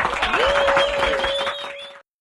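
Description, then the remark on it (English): A crowd's applause for Blackground 2.0 record owner Barry Hankerson: dense, steady clapping with a sustained high tone running through it, holding for about two seconds before cutting off abruptly. “y'all please give it up and show your love for Blackground 2.0 record owner Barry Hankerson.”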